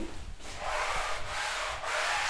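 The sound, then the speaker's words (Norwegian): Leather creaks and rubs in a steady rhythm as someone sits on an architectural bench made of painted wooden planks: about four long, scratchy strokes with short pauses between them, and no voices. “Det er læreslyd, altså.”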